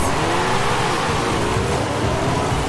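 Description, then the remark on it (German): A Porsche engine revs loudly and continuously, its droning pitch swelling and easing slightly as it runs, with no one speaking. “Ein alter Porsche und da vorne war ein neuerer Porsche.”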